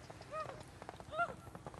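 Horses ridden by a group of people gallop past, their hooves clip-clopping in a quick, uneven patter, with a couple of brief calls rising over the faint hoofbeats.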